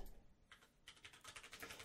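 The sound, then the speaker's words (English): Rapid clattering of keys on a computer keyboard, a quick burst of fairly quiet keystrokes after a brief pause, with no one talking. “I'm gonna be typing that around.”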